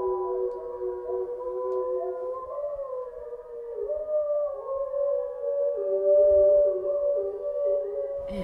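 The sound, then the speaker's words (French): Several wolves at a wildlife park howl together in long, sustained, overlapping tones that rise and waver, forming a steady chorus with no talking. “normalement, hein, ça nous stoppe tous euh, l'espace, le temps du hurlement.”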